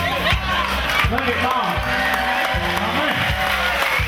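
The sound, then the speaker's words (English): A large crowd at a rally in Orlando roars and cheers continuously, a dense wash of voices with shouts and whoops rising and falling, loud throughout, with no clear speech standing out. “The entire crowd had a great time at the Monaco Shipwrecked in Orlando rally.”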